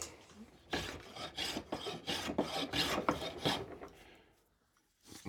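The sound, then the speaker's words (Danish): A sharp hand plane shaves a piece of wood held in a planing bench in a quick series of about eight rasping strokes, steady and rhythmic, then a short pause before another stroke begins. No one speaks. “det er når du sætter en stykke træ i høvlbænken, og så du har en høvl, der er skarp.”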